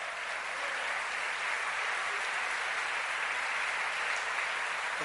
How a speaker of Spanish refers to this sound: ¿Cuánto le dan un aplauso fuerte al Señor?